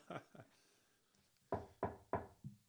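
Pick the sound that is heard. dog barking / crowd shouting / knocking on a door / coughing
knocking on a door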